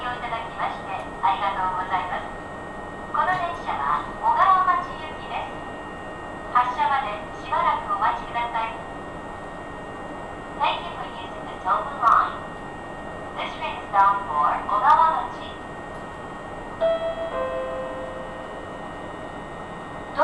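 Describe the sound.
A steady low rumble and hiss fill the inside of a Tobu Tojo Line electric commuter train from Yorii to Ogawamachi. A recorded announcement voice in Japanese and English speaks in bursts over the hum, and a brief tone sounds near the end.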